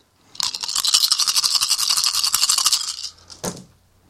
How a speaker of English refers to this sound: So I've given you eight dice. Just go and give them a roll, and we'll sum up the total. Roll them all at once. Roll them all at once. One big old roll.